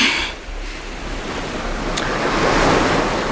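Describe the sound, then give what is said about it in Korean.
Ocean waves wash steadily onto the shore on Jeju, rolling in and out in a broad continuous rush of surf that swells gradually louder, with a low wind rumble underneath and no voices. “하, 이렇게 바닷가에 앉아서 밀려오고 밀려가는 파도를 보는 것만도 참 좋아.”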